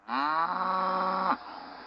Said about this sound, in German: Bleib stehen, du Kackkuh! Ah, so, ich musste gerade die Kuh jagen.